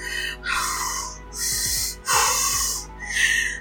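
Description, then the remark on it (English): A voice imitates heavy, rasping breathing: several loud, hissy inhales and exhales in a slow rhythm, with a low growly rattle mixed in, about five seconds, with no talking. “What was that five second breathing and growl?”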